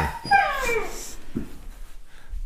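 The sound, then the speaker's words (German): A dog whimpers and whines in high, wavering, pitch-sliding cries over the first second, followed by a couple of softer yelps. Moderately loud, with no talking. “Nie wieder nehme ich die mit dem Hund auf.”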